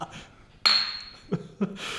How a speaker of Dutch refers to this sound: Laten wij proosten op, op, op, ons, op onze enorme kwaliteiten. Proost.